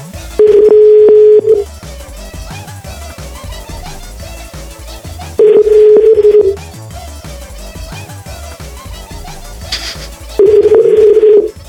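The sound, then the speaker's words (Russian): A telephone ringback tone during an outgoing call sounds three times, each a steady mid-pitched beep of just over a second, repeating about every five seconds over quiet background music. “Так, так себе представлял гудок в Пискином домике.”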